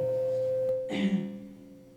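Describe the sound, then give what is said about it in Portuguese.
A steady microphone feedback tone rings at one constant pitch for the whole stretch, joined midway by a brief muffled bump and a rougher, wavering overtone. No one speaks. “Tá uma microfonia danada.”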